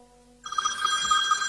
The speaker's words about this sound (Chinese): 民国十四年的冬夜，江州警局的电话响个不停。